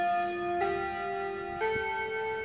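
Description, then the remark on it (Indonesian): A clock chimes at some length in sustained, ringing tones that step to a new pitch twice, each change striking fresh and overlapping the fading previous note, with no voices present. “jam ini agak panjang jadi baiknya saya mendengarkan atau terus berbicara Oke, okay, tadi aku skip aja karena jamnya agak panjang.”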